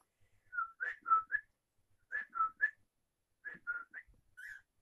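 pet bird whistling

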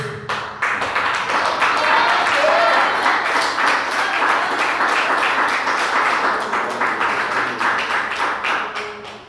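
audience standing and applauding

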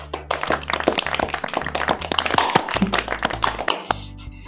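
hand clapping

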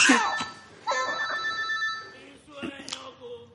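mobile phone ringing

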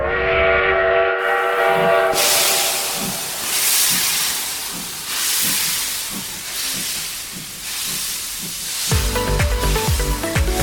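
train departing

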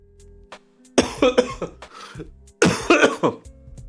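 repeated coughing

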